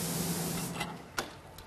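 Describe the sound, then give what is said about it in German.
A spray gun hisses steadily as an apprentice sign maker sprays a primer coat onto a sign box, then sputters in a few short bursts, moderately loud, with a faint low hum underneath. “Patrick sprüht eine Grundierungsschicht auf den Kasten, später kommt der Lack drauf in der jeweiligen Farbe, die der Kunde sich wünscht.”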